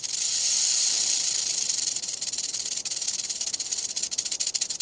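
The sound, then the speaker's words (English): A rattlesnake's rattle buzzes as a steady, high, dry hiss, then breaks into a rapid stuttering chatter of fine clicks toward the end. No one speaks. “In one experiment, ground squirrels were nearly as alarmed by the burrowing owl's hiss as they were by the recording of a real rattlesnake like this one.”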